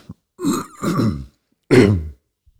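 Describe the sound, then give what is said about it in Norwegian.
An old man clears his throat in a studio, three rough, guttural bursts: two quick ones back to back, a short pause, then a final firm rasp, with no talking. “Jeg er en gammel mann som kremter en del.”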